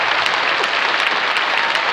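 Steady, dense applause from many hands, a continuous bright crackle of clapping that holds at an even, fairly loud level throughout with no voices over it.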